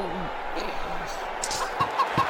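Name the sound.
rooster clucking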